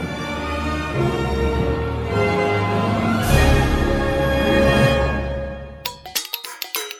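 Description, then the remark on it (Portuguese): A short musical jingle for the radio programme Estação Recreio: sustained, layered tones with a steady low bass swell for about six seconds, then end in a quick run of sharp, bright percussive hits. No voices. “Trilhinha sonorinha.”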